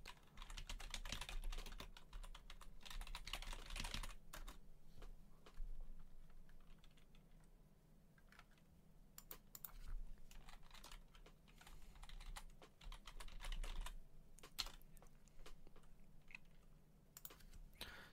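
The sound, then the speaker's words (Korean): Steady computer keyboard typing, a dense run of quick key clicks with brief pauses, as someone types a search term for the Edaily broadcast, with no talking over it. “그 다음에 어른님께서 이데일리 방송은 뭐라고 치면 되냐고 해주셨는데, 그, 저기, 제가 한번 지금 적절한 검색어를 한번”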